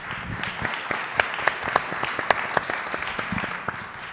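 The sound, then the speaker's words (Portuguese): An audience at a conference in Lisbon applauds for the president of IPATIMUP, Manuel Sobrinho Simões. A dense patter of many hands, with a few sharper, louder claps standing out, is sustained steadily for several seconds without any talking. “E ao meu lado esquerdo, vosso lado direito, tem o presidente do IPATIMUP, Manuel Sobrinho Simões, para quem peço também um aplauso.”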